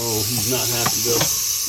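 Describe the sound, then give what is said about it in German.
A large rattlesnake found in a family's home raises its head as a snake catcher approaches and threateningly shakes its tail rattle, which buzzes steadily and dry, fairly loud for the whole moment, while a voice talks over it. “richtet sie ihren Kopf auf und beginnt bedrohlich mit ihren Rasseln am Schwanzende zu klappern.”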